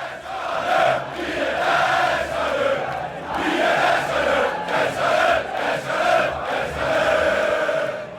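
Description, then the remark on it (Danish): A huge stadium crowd roars in sustained red-and-white celebration as Denmark reaches the semifinal, a dense wall of cheering and shouting voices that stays loud throughout with rising swells and chant-like bursts. “eksploderer stadionet i rødhvid ekstase.”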